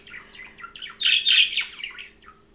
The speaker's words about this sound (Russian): А у нас, кстати, есть возможность, да, послушать типа попугая говорящего. Это пока только его голос, но не разговор.